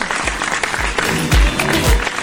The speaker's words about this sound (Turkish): Wow Fashion hoş geldin sen de sevgili ödül sponsorum. Alkışlar sana.